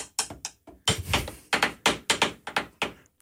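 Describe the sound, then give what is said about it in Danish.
A drumstick taps out a quick, uneven series of sharp hits, about a dozen strikes in a few seconds, some in rapid pairs, with no voices present. “jeg har måske brug for, at du bruger den der puppet i stedet for den trommestik”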